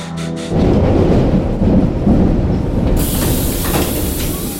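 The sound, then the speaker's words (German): A subway train rushes and clatters through a tunnel, a loud, continuous low rumble with rattling wheels and a hissing roar that brightens partway through. No one speaks. “Und schreckst mitten im Klackern und Rauschen des U-Bahn-Tunnels auf.”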